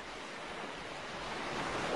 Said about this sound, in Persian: نمیدونم چقدر اونجا نشستیم. بارون گرفت. داشتیم خیس می شدیم. سکوت بود و صدای امواج.